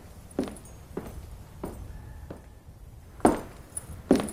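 Several soft, evenly spaced footsteps, then a door swings shut with a solid thud as someone leaves, followed by a second knock-like bang near the end. No talking.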